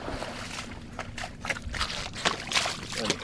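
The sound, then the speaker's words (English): Sloshing, splashing steps wade through shallow water of a beaver pond, through silty mud and vegetation, each stride bringing a wet swish and gurgle in an uneven rhythm, moderately loud, with no one speaking. “We wade through the water, picking our way through the vegetation and mud.”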